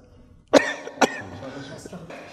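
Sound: coughing and throat clearing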